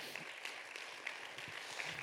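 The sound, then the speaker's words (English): An audience claps their hands together in a steady, dense patter of applause that holds at an even level for about two seconds, with no voices over it. “Clap your hands hands if you believe that.”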